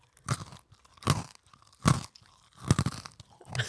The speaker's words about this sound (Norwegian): men du må åpne. Du må holde mikrofonen sånn, så må du crunche.